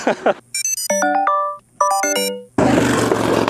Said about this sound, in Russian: А, Это вот не мы, это другой проехал мимо скутер очень шумный.